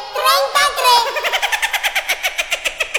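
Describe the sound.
A snippet of a cartoon closing theme: a high, childlike singing voice over bright accompaniment that breaks into a quick, bouncy string of repeated chanted syllables.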